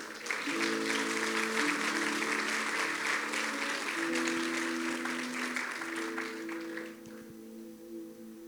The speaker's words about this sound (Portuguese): Pode dar um aplauso a Jesus, por favor.